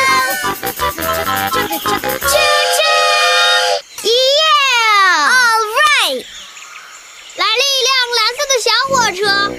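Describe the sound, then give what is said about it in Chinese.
Children's voices imitate the whistle of a big red train, calling "choo choo" with loud, high-pitched calls, some held steady and others sliding up and down, in several bursts separated by short pauses. “来了一辆大红火车，Come on，我们一起让这辆大红火车鸣笛吧。和我们一起说，啾啾，用力拉汽笛，用你全身的力量哦，啾啾。”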